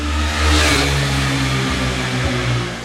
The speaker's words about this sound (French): Désolé pour la moto.